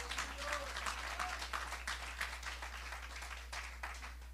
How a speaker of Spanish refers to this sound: No sé si le puede dar un aplauso al Señor.